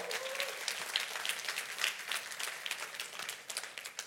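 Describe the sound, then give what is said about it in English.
A church audience bursts into steady applause for a team planting a new church, Hope City Church, many hands clapping together in a dense, sustained patter for several seconds without pause. “But there's a lot of, that's a good place to clap we for church plants.”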